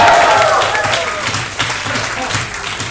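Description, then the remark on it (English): A large audience at a talk cheers and claps loudly in response to the speaker's call to cheer, a dense, steady roar of voices and applause that holds for the whole stretch, with a few higher shouts standing out at the start. “Cheer if you get it.”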